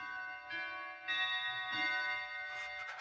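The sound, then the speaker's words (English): A clock strikes a quarter past, chiming a short sequence of four or five ringing bell notes, each struck tone overlapping the lingering resonance of the last, clear with no voices. “The clock, it struck a quarter past.”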